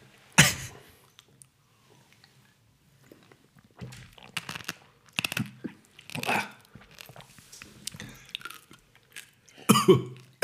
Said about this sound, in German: Ich hab die Kaffeebohne direkt mit Ich auch. Ja. Ich muss die kauen, das ist richtig geil.